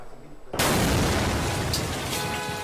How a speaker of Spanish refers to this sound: A casi un año de la explosión que sacudió a un vecindario mayormente hispano en el sur de Los Ángeles, hay quienes no han podido regresar a sus casas.